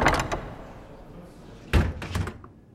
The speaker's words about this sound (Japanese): 報道官は自分のオフィスのドアを蹴って閉じた。